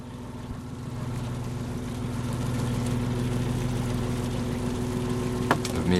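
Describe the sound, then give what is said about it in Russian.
Fishing boats entering the port of Tongmyeong in Sokcho one after another in early morning winter darkness before dawn: steady engine drone of boats idling and motoring, a continuous low hum with harmonic tones, a brief sharp knock near the end, with faint background speech. “На улице еще темно, но в порт одна за другой входят рыбацкие лодки.”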